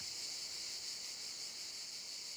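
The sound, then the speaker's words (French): Cicadas drone in a continuous, shrill buzz that holds steady without pauses, moderately faint and evenly spread, among vineyards surrounding a Provençal-style hotel, with no voices present. “Autour, des vignes et le chant des cigales.”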